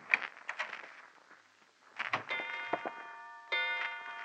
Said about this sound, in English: I thought at first I'd set off a new polite kind of burglar alarm but it was only a grandfather clock tolling out 10 p.m. as the moonlight boffed me smack in the kisser.